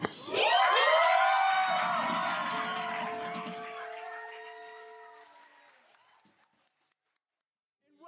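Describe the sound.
An audience cheers with a long, rising whoop of voices that holds steady for several seconds and then gradually fades away to silence.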